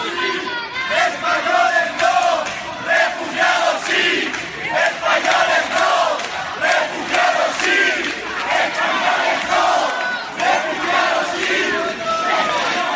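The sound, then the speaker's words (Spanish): A large crowd of Catalan separatists chants slogans in unison at a demonstration, loud and sustained, many voices rising and falling together in a steady rhythmic cadence throughout. “Los separatistas catalanes, que no olvidemos, gritan estas cosas en sus manifestaciones.”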